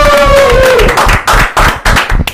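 A group claps and cheers loudly to welcome a second guest to the table. A sustained whoop or whistle rises over dense, steady applause at first, then the clapping continues in choppy bursts until the end.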